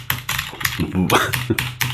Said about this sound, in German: Und eine neue Tastatur. Wir hatten es vorher schon von meiner tollen mechanischen Tastatur, die so richtig schön klackert.